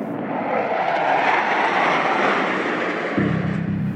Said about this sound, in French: 38 avions militaires chinois pénètrent dans la zone d'identification de défense aérienne de Taïwan. Parmi eux, un bombardier H-6 à capacité nucléaire.